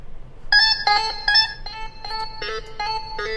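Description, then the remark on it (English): A bright, electronic synthesizer plays a short melody of sustained, clean-toned notes that step between pitches at a moderate pace, played through the Reason Lite synthesizer program, heard alone with no voices. “just feed it into a synthesizer program. In this case, I, I use Reason.”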